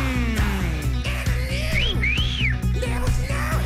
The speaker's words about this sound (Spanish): A él sí le chiflo.